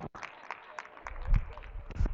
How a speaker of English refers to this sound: See, there's the clap that I get. They're mocking me.